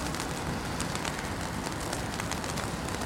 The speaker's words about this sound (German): Okay, ich mache mal den Schirm hier, weil uns regnet.